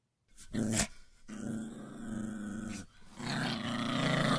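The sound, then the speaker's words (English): A Rottweiler growls low and menacingly in a kitchen, a sustained rumbling snarl with a short burst at the start and another rising growl toward the end, no talking. “oh, he doesn't sound very happy.”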